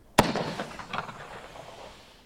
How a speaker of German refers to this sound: Ach, da hört man auch so schön das Eisenrohr klingen. Und weil es so schön war, einer noch. Ja, das ist also eine Weihnachtsbaumkanone.